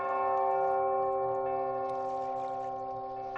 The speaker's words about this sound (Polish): bijące gdzieś z oddali dzwony. Dobra, skąd to bije? Tam jest cywilizacja.